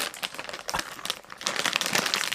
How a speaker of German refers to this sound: Ey, während du guckst, öffne ich diese, öffne ich diese Tüte Torres Selecta Trüffel Negra Chips.